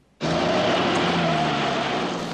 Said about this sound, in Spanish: Y nos vamos en coche rápidamente hasta la escena del crimen